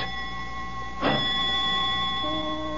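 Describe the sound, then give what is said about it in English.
A doorbell rings with a steady, sustained metallic tone, then a sharp, louder jolt of ringing about a second in before the tone carries on, with no voices. “Only the doorbell.”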